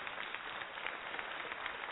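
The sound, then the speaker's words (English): A steady round of applause, many hands clapping at once in a dense, crackling wash that holds an even loudness for two seconds, with no voices over it. “I had to get I had to give him a round of applause.”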